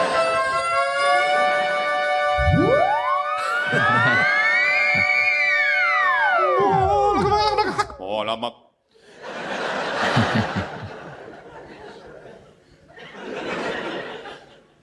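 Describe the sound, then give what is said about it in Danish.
A European ambulance siren passing by wails loudly with overlapping rising and falling sweeps for several seconds, then cuts off and is followed by bursts of people laughing. “European sirens, a lot more lyrical, aren't they?”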